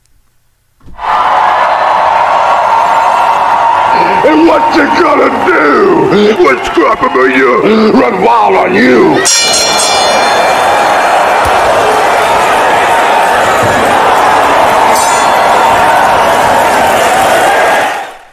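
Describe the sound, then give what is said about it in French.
A loud, dense produced bumper jingle with a roaring crowd and cheering throughout, a voice shouting over it, then an abrupt cut into a brighter, sustained stretch of crowd noise and music. “à ce nouveau bumper qui va nous amener vers euh, Scrapamania”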